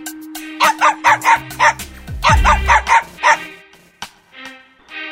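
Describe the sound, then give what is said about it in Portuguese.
A dog barks repeatedly in quick bursts, two runs of sharp barks separated by a short pause, with a low rumbling noise in the background and no speech. “Ouviam ele latir e deixavam-no sozinho com seus devaneios.”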